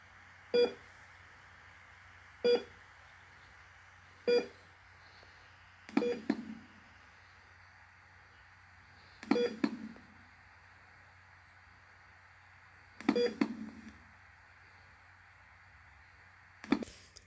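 A heart monitor beeps steadily, showing the patient is alive, short clear electronic tones repeating every couple of seconds over a faint constant hum, the later beeps followed by a soft low thump.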